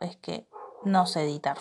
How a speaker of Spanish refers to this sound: Y perdón por el ruido del fondo de mi perro